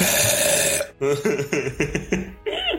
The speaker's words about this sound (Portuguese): Eu acho que é um arroto. Vamos deixar definido aqui agora.